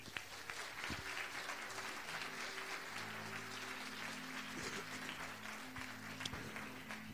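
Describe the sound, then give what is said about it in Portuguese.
An audience claps steadily for the King of Glory in a dense, sustained wash of applause, with low sustained tones, likely an organ or keyboard, droning underneath throughout. “Você pode aplaudir ao Rei da Glória?”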